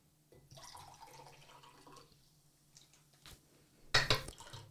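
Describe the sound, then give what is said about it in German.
Water is poured quietly into a glass, a soft trickling stream for a couple of seconds, followed by a brief sharper splash or clink near the end. No one speaks. “wie ich Wasser eingeschenkt habe?”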